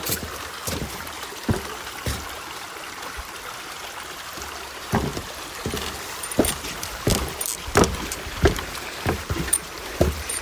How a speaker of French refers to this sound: Je m'apprête à traverser une passerelle suspendue. et la petite rivière Saint-François, elle coule. C'est très sympa.